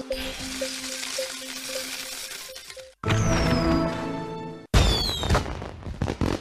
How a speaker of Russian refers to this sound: Эта карточная игра входила в стандартную поставку Microsoft Windows, начиная с третьей версии. Игра была разработана Уэсом эм Черри в 1988 году.